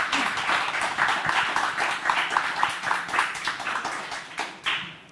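An audience claps steadily for several seconds, a dense patter of many hands, moderately loud, easing off slightly near the end with no one speaking.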